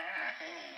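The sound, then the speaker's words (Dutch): A single drawn-out meow from a pet cat, fairly loud, holding a steady high wailing tone for just under a second with no voices around it. “Ja, dat is mijn kat, dat is mijn kat, ja.”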